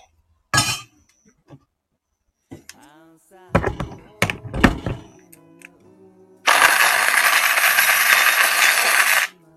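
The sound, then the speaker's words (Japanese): A few sharp clinks and knocks, then an electric coffee grinder grinds coffee beans in Hakuba Village, Nagano Prefecture, a loud, steady whirring buzz lasting about three seconds before cutting off. “今、今ね、豆をひいてます。”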